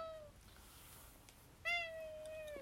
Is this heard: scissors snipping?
no